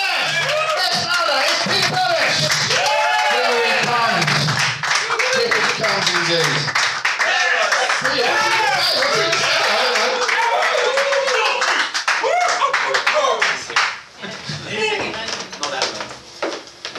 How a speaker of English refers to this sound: Ready? After three, massive applause. One, two, three. Yeah!